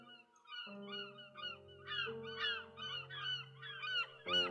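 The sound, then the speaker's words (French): A flock of seagulls cries repeatedly while approaching an island, their sharp, overlapping calls coming in quick bursts over a steady low droning hum, with a louder burst at the end. “et à mesure que vous approchez justement de première escale de, donc de, cette île, vous voyez, euh, donc là c'est pas forcément des, pigeons qui virevoltent, mais vous entendez plus des, cris, des cris de mouettes euh, qui, viennent à vos oreilles.”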